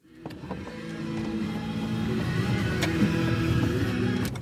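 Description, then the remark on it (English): Someone gets out of a car in 2008, with a few sharp clicks and soft thumps over the steady low rumble of an idling engine. “That's me getting out of a car”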